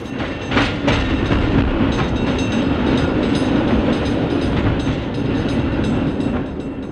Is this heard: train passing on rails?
yes